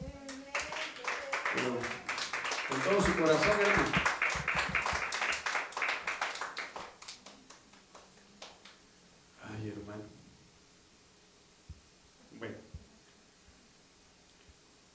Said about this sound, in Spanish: Dele ofrenda de palmas al Señor, pues.